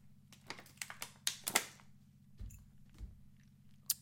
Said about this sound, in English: Let me take a swig of my water.